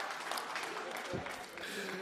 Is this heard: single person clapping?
yes